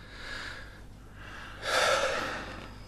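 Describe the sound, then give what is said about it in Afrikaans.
Deep, panicked breathing: a drawn-out breath followed by a louder, harsher gasping one, with no talking. “Al diep asem.”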